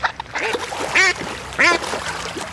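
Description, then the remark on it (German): Ducks quack loudly, two especially strong harsh calls standing out among several shorter ones, with a faint splash in the background. “Enten”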